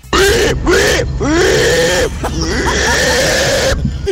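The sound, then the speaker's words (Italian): A pig squeals loudly and frantically while being slaughtered at a slaughterhouse, in a few long, wavering bursts separated by brief gasps, the shrill cries harsh with no talking. “ci ha mandato il maiale scozzato al macello.”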